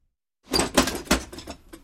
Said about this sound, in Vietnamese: Đúng lúc đó thì cửa cổng mở, một người phụ nữ trẻ bước ra